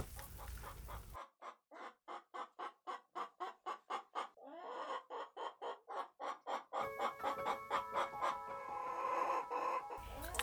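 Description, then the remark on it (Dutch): Rapid, rhythmic clucking from a hen and rooster scratching and pecking among leaves and grass, a long run of short repeated calls, shifting into busier overlapping squawks and clucks toward the end. “kort na de middag doken een hen en een haan op uit het struikgewas.”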